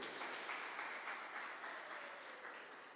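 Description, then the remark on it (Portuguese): An audience applauds a servant of God who is present, a steady, dense wash of many hands clapping at once that stays fairly loud throughout and fades slightly toward the end, with no voices standing out. “Gente, vamos aplaudir esse servo de Deus está aqui,”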